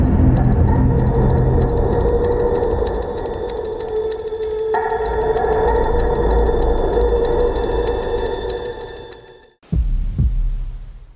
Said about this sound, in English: and a motorcycle outside my window.